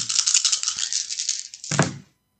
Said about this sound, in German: Ich habe zusammengefasst, sage ich jetzt einfach mal, mit einem W6 eine 5 gewürfelt und mit dem W12 eine 9.